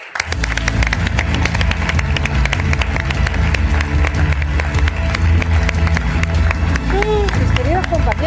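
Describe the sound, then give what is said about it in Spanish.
A crowd applauds loudly and steadily throughout to welcome a guest, dense clapping with a low rumble beneath and a few scattered voices rising near the end. “Así que por favor recibamos con un fuerte, fuerte aplauso”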